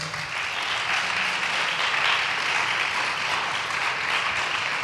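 An audience applauds steadily for about five seconds, a dense, even wash of many hands clapping at a constant loud level with no voices on top.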